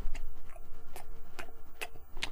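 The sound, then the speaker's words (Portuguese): Chewing with crisp crunches repeating roughly every half second, steady and rhythmic over a quiet background, as someone chews a plaque-disclosing dye tablet that stains dental plaque red or blue. “então pra você mastigar os dois?”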